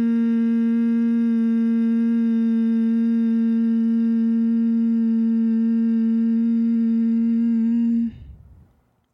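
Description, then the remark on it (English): A single steady hum on one low pitch, made as the exhale of a breathing exercise with the teeth gently touching and the jaw unclenched, held evenly for about eight seconds as one long exhale, rich in overtones, then stopping and giving way to a soft breath in through the nose. “Inhale through the nose and then exhale with a humming or buzzing sound.”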